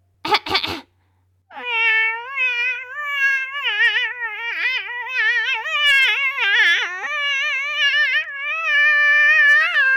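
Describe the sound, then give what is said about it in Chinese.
A brief raspy burst, then a person imitating a big cat trying to sing, with a long, shrill, wavering meow that is sustained for about eight seconds, its pitch wobbling and yowling up and down, loud and unbroken. “可是大花猫根本就不会唱歌，只会尖锐的喵喵大叫。”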